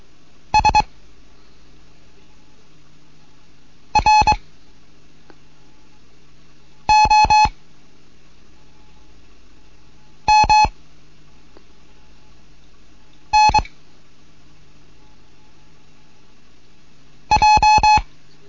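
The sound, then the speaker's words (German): Six short bursts of electronic Morse code beeps from a Morse lesson by amateur radio station DJ1 Kilo November in Bremen arrive at steady intervals of about three seconds. Each burst is a quick cluster of tones over a faint, low background hum. No one speaks. “DJ1 Kilo November in Bremen mit einem Morseunterricht.”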